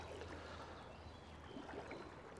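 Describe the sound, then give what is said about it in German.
Steady flowing stream water with a continuous soft rush and faint trickling detail, fairly quiet, with no voices present, heard while standing in the middle of a stream within a city. “Ja, aber man steht eben mitten im Bach.”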